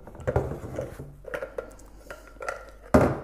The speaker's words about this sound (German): So, das war jetzt die Küchenaufnahme.